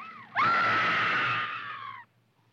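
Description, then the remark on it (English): A woman in a film, as the character Anne, lets out a single loud, high-pitched scream of terror, sustained for nearly two seconds and then cutting off abruptly, with no talking. “Throw your arms across your eyes and scream, and scream for your life.”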